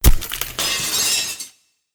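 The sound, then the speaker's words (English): Mirror glass shatters loudly as a shovel is hammered against it, a sharp impact then a burst of breaking shards and tinkling fragments that rings bright for about a second and a half before cutting off to silence. “He hammers at the mirror with the shovel, shattering the glass.”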